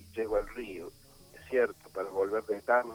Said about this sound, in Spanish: No sé si te estás moviendo, pero te perdemos la señal, ¿eh?